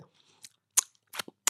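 Chewing of cheese: several short, crisp mouth clicks and smacks spaced irregularly over a quiet background, with no talking.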